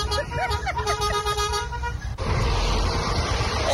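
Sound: car horns honking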